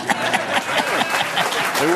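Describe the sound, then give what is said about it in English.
An audience applauds for Tyrus with steady, dense clapping that holds for the full two seconds, while scattered voices call out and chatter over it. “They were, they were like, I don't know if I agree, but I'll applaud.”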